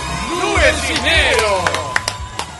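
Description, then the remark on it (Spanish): Voices whoop and call out over a low murmur, followed by a handful of sharp, scattered claps near the end, like brief applause and cheering from a small crowd. “Fuerte el aplauso para... para, para...”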